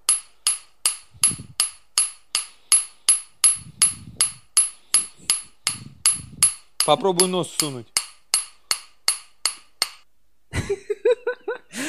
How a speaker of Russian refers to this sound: По-любому же вы увидели уже такую фишку, когда стучишь молотками и непонятно, соприкасаются они или нет.